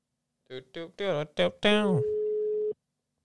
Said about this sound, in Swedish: Yes, vänta jag ringer här nu.